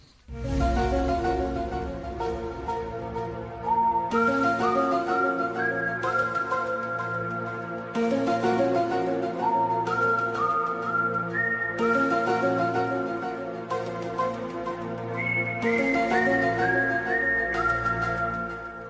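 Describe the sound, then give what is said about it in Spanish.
A whistled TV series theme tune: a steady, high melody of sustained notes that rise and fall, played over a continuous instrumental backing, loud throughout with no talking. “Bueno, vamos a escuchar primero una pequeña eh, sintonía a ver que nos va a poner un poco en situación.”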